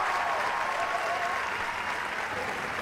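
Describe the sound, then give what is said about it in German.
Sustained audience applause at the end of a long evening dance performance on stage, a dense, steady wash of many hands clapping at an even loudness throughout, with no voices standing out. “Kein Wunder, dass am Ende der Applaus gar nicht mehr aufhört.”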